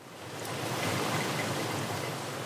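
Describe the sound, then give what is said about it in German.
Steady, broad rush of Atlantic sea surf breaking against rocks beside a seaside square, a continuous washing roar at moderate loudness with no voices, in rainy weather. “Nicht auf dem Platz und nicht auf den Felsen in der Brandung.”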